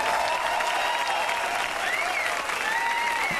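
A dense, steady burst of applause from a sizable crowd, many hands clapping at once in a continuous wash of sound, fairly loud and sustained throughout with faint whistles or cheers poking through.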